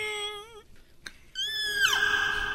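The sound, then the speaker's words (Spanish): A person imitates a whale call, voicing a wavering, warbling tone, pausing briefly, then a higher sustained cry that slides downward in pitch. Fairly loud, with no speech. “¿Cómo hace la ballena? Ándale así, tiene un ruido raro.”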